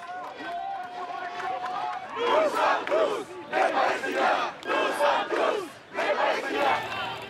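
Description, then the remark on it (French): An angry crowd of protesters at a pro-Palestinian demonstration in France shouts and chants in rhythmic bursts. Many voices rise together in loud, repeated waves with brief pauses between, at an agitated outdoor gathering. “Des rassemblements, à l'époque interdits, émaillés de tensions entre les forces de l'ordre et des manifestants en colère.”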